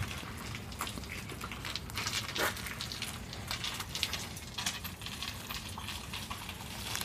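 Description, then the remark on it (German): Glass bottles clink and rattle in a continuous jumble of bright, irregular taps as a bottle collector rides past a climbing frame, over a steady low rumble with no voices. “Ja, jetzt haben wir gerade mal den Flaschensammler abgewartet, der hier rumgefahren ist. Vielleicht konntet ihr es hören.”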